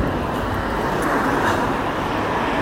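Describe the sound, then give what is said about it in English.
A passing train roars steadily, heard from the street, a loud, dense rushing rumble that holds at an even level throughout, with no voices over it. “There's a roar of a train”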